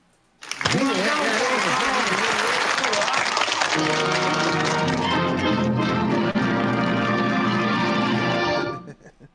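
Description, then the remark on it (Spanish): A loud, sustained burst of applause that starts abruptly and runs for about eight seconds. Partway through, steady tonal notes join in beneath the clapping, before everything cuts off together. “Así que un aplauso”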